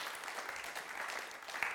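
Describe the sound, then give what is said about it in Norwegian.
An audience claps steadily, a dense crackle of many hands sustained at an even level throughout, with no voices standing out. “Og så til dere som ja, dere kan få lov til å gi dem en applaus.”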